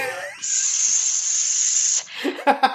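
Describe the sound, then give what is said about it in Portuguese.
An effervescent tablet placed in water gives a steady, bright fizzing hiss that runs evenly for about a second and a half, then stops abruptly as a voice begins speaking. “É o barulhinho que faz quando coloca o comprimido efervescente na água.”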